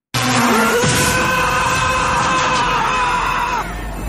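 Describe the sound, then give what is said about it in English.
A man lets out a loud, sustained scream lasting a few seconds in an Emilio Estevez action movie, strained, with a rough, harsh edge and no talking around it. “Oh, and, and, listen to uh, Emilio Estevez's great action movie Scream.”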